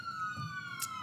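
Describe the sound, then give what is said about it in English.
A police car siren blares steadily outside a studio, one sustained, loud electronic tone gliding gradually lower in pitch, with faint background rumble and no voices. “Please excuse the siren. I know that's going to get picked up on the microphones.”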